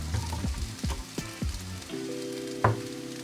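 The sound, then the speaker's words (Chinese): Instant noodles, seasoned with pepper and scallions, stir-fried in a pan and then taken out of the pan: a steady sizzle with repeated scraping, clattering strokes of a spatula, then a sharp metallic knock near the end. No one speaks. “好，那我们先把这个炒泡面给起锅。”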